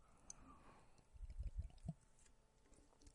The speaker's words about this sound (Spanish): Ay, me bebí un poco de agua, macho.